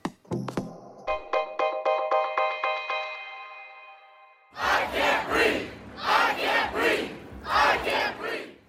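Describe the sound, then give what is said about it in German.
A short chiming musical jingle plays, then a large protest crowd in the USA chants "I can't breathe" in loud, rhythmic bursts, repeating the phrase several times in unison. “I can't breathe, ich kann nicht atmen. Das rufen Demonstranten am Dienstag in den USA.”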